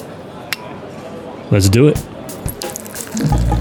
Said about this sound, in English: Pop a bottle.